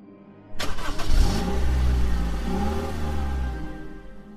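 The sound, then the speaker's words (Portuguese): A car engine cranks and catches with a sudden burst, then settles into a loud rumble that revs up and rolls on steadily as the car pulls away from a house in an upscale neighbourhood and drives a few blocks. No voices. “Eu andei algumas quadras de carro até que quatro caras com duas motos pararam meu carro e apontaram suas armas.”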